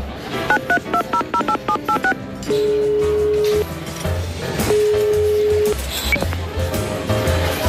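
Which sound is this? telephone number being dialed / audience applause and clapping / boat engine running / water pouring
telephone number being dialed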